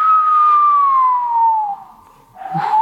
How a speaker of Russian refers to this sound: Такой волшебный инструмент, такая флейта с кулисой, как, как тромбончик маленький.